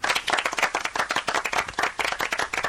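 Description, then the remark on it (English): A steady burst of clapping from a small group, dense and even throughout, moderately loud, with no voices over it. “Round of yeah. applause for Paul.”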